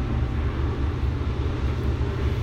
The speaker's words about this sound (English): Is that a train? I've never heard of this. Is it coming? Is it coming into the living? Is it coming to the living room?